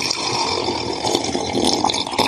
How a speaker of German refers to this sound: Ja, eigentlich ist es immer nur Wasser trinken. Mhm, okay. Ganz simpel, es ist einfach Wasser.